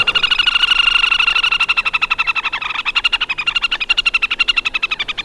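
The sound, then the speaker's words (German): Loud, rapid trilling from male and female waterbirds on a lake, a high whinnying rattle of fast pulses running continuously with overlapping voices, with no talking. “Ja, und das können Männchen wie Weibchen gleichermaßen, sodass das an so einem See dann gern mal durcheinander trällert.”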